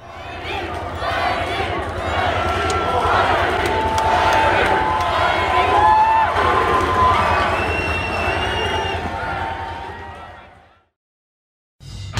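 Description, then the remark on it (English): A large crowd of NASCAR race fans chants the name of driver Blaney as he gets out of his car after the race, many voices shouting together in a loud, sustained roar with cheering mixed in, fading out after about ten seconds. “And I think we'll leave you uh, with this segment with just a clip of those fans chanting uh, for Dave as he hopped out of his car after the race.”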